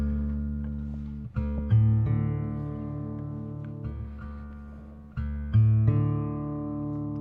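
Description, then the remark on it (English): An instrument sustains steady, harmonically rich tones while pitches are adjusted, with repeated plucked attacks around the second and fifth seconds, as if checking its tuning. No one speaks. “How's that tuning sound? Does that sound okay?”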